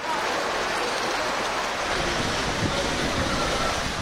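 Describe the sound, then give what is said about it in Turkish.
A steady, loud roar of floodwater rushing through the streets of Gümüşhane city centre, Turkey, after only ten minutes of intense rain with strong wind, a dense churning wash of water noise that holds constant throughout with no pauses and no voices. “Gümüşhane kent merkezine sadece 10 dakika yağan yağmur öyle şiddetliydi ki cadde ve yolların bu hale gelmesi de dakikalar aldı.”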